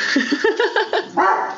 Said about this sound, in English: I'm really going to apologise for my dog barking. The postman's just turned up. And we don't get many visitors.